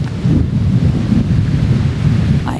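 Heavy sea surf roars loud at the shore of Green Island, Taiwan, below a stony path, a dense, continuous low rumble of high crashing waves buffeted by wind noise, with no voices.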